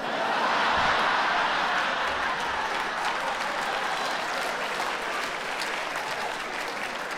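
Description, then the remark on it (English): A crowd claps steadily, a dense wash of many hands that holds at a fairly loud, even level for several seconds and eases slightly toward the end. Audience members who are foreigners clap in response to a call to clap. “Other foreigners in the room, clap.”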